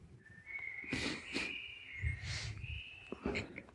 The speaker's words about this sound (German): Ich finde nett, dass du so ein bisschen Frühlingsatmosphäre im Hintergrund einspielst, dass man so ein paar Vögel hört. Ja, ist leider halt nur ein Track, ne?